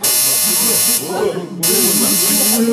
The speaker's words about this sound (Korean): 왜 이러지? 그때 환호하던 모두의 등골을 서늘하게 하는 오류 경고음이 울렸다. 화면에는 여전히 100%를 채운 그래프와 함께 낯선 메시지가 떠 있었다. 작업을 종료하지 못했습니다.